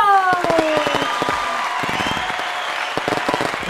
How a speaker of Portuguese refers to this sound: Fogo de artifício e palmas, tudo junto!